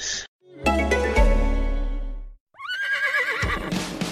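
A brief bright tone and a booming sustained chord give way to a horse's loud whinny, its pitch quavering and falling over about two seconds. No one speaks.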